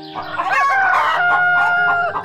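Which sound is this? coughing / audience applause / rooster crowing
rooster crowing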